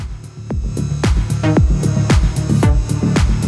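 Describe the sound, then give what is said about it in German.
A punchy, pitch-dropping electronic hit repeats in steady ping-pong delay echoes alternating between right and left, roughly twice a second, the repeats overlapping into a dense, rhythmic bounce over a low droning bed, with no voices. “Nee, Ping-Pong-Delay wechselt immer rechts und links ab.”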